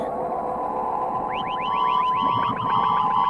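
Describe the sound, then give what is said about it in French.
An onboard computer alarm on the lunar module Eagle starts up over a steady droning tone during its descent to the Moon, triggered because the overloaded onboard computer has too many calculations to make. It sounds a fast series of short rising chirps that repeat and grow denser and louder toward the end; no one speaks. “Tout à coup, une alarme se déclenche.”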